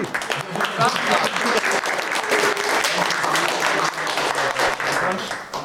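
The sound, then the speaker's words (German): Sustained audience applause for a third-place podium finish, a dense steady patter of many hands clapping at an even loudness throughout, with some faint voices mixed in. “Hier ist ihr Applaus.”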